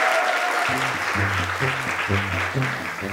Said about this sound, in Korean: 자 이렇게 많은 분들 대박 나시라고 감사의 박수 부탁드리겠습니다. 와!